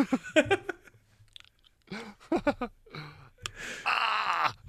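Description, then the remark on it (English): Wet clicking and crunching mixed with strained groans and gasps as Invisalign dental aligners are put in, ending in a longer hissing slurp as something is pushed into the mouth. “Oh man, putting in Invisalign is definitely great for an audio medium.”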